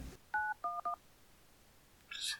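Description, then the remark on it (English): Three short telephone keypad dialing tones beep in quick succession, clear, as 911 is dialed to call the police, followed after a pause by a brief hissy burst of line noise. “You just call nine one one.”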